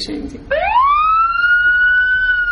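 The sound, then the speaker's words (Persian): A fire engine siren starts up after a brief rustle, its loud wail rising steeply and then holding a steady, piercing tone. “صدای آتش نشانی آجری آتش نشانی”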